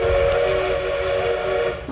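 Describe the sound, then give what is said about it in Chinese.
A green CR200G Fuxing high-speed EMU train rushes across the Hongliu River Grand Bridge on the Lanzhou–Xinjiang railway at the Xinjiang–Gansu border, a steady, sustained horn-like tone riding over loud rumbling rail noise that fades slightly toward the end. No one speaks. “七月二十八日，通体绿色的 CR 二百 G 动车组在桥上奔逸绝尘，新疆普速铁路上从此有了复兴号。”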